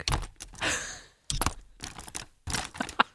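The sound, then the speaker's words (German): Several sharp plastic clicks and snaps of the clasp of an old 4You school satchel, in three bursts separated by brief pauses, with light rustling between them and no talking. “Wir machen ein bisschen ASMR hier ja, mit so Schuhranzen. Klick, klick.”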